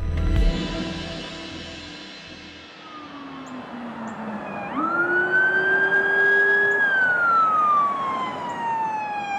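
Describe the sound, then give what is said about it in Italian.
Police, ambulance and fire brigade sirens wail as the vehicles arrive at a housing complex, a falling tone giving way to a loud rising, sustained siren partway through, with engine rumble underneath and no voices. “Polizia, ambulanze e vigili del fuoco raggiungono il complesso di case dove vivono, l'Arroyo Villas.”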